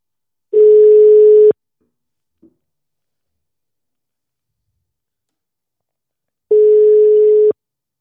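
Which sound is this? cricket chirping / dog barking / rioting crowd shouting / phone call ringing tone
phone call ringing tone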